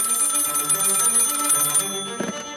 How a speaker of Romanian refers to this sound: Dimineața zilei de 10 octombrie, anul 1914, reședința familiei Bibescu, castelul Mogoșoaia. Sună telefonul